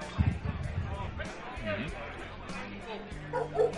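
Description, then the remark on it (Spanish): A dog barks a few times in short bursts, at the start and again near the end, mixed in with people talking over a busy, chattering background. “El, el, perro, el perro está de acuerdo”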